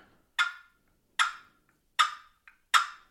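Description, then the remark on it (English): A turkey call rasps out a purr, made with the call's lid, as four short, scratchy bursts, evenly spaced about a second apart, each fading quickly. Moderately loud, with no voices. “So that's a purr. You know, that's great uh, uh to calm him down.”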